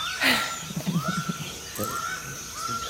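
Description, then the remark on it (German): Tropical rainforest ambience at dawn, around 5:30 a.m., recorded on a phone from a mountain above a large primary rainforest in Guatemala: a harsh caw-like call rings out amid repeated slurred whistling bird notes, over a steady high insect drone, with no talking. “ich bin in Guatemala vor einem großen ähm, Primärwald. Also wirklich Regenwald”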